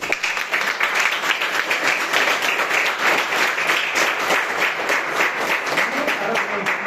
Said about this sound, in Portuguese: Você pode aplaudir Jesus?